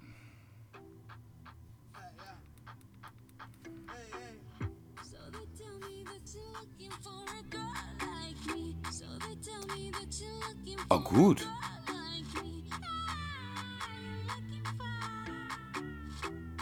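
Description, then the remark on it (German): A pop song with a female singer plays steadily for the whole stretch, with a regular beat and sustained bass notes; a person briefly speaks over it near the middle. “Sie kann singen. Nein, sie singt.”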